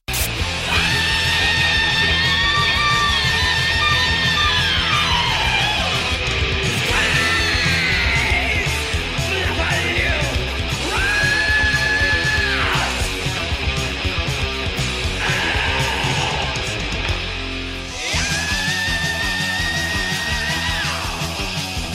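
High, harsh, atonal screamed thrash metal vocals from the band's singer and bassist wail over dense, loud distorted guitars and pounding drums, with several long sustained shrieks that bend and slide down in pitch.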